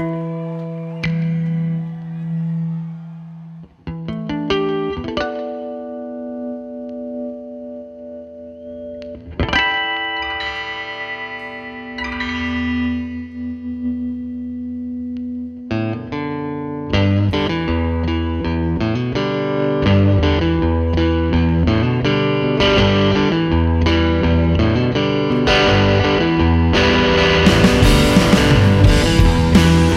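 Distorted electric guitar plays sustained chords and riffs, building from a sparse opening into a dense, loud full-band passage with heavy effects and reverb.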